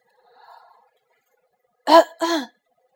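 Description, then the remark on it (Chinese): A person imitates a cricket coughing: two short, rough, throat-clearing coughs in quick succession, the second a little longer. A faint breathy murmur comes earlier, then silence. “打扰一下，一只蟋蟀咳嗽两声，开了枪。”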